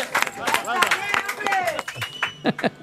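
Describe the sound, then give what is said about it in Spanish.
A small group at Bar Matán claps quickly and unevenly as the house offers a round of drinks, with excited voices calling out and cheering over the applause throughout. “Podéis aplaudir, que vais a beber.”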